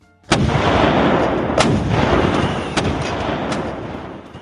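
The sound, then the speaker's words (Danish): Small cannons set up along a quay in Denmark, loaded with blank powder and lit by soldiers, fire loud blasts one after another, about four shots roughly a second apart, each sharp crack followed by a heavy rolling rumble that carries into the next. No voices. “Et par soldater har fyldt dem med løs krudt og går nu hen og tænder lunden på dem, og et par sekunder senere, så lyder der 10 høje kanonskud lige efter hinanden.”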